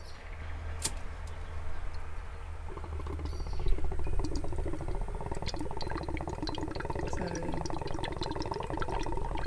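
A water bong being lit, a brief click near the start, then close, continuous gurgling bubbles with rapid little pops and crackles over a low rumble, with no talking.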